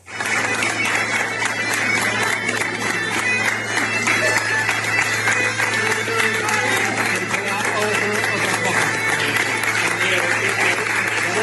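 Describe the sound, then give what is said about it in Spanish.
A large crowd in Santiago applauds continuously and loudly for several seconds as pilgrims arrive accompanied by Guardia Civil agents, the dense clapping steady throughout, with a faint hum of voices and cheering mixed underneath. “Bueno, vamos a escuchar cómo era la, la llegada de estos peregrinos acompañados por agentes de la Guardia Civil a Santiago.”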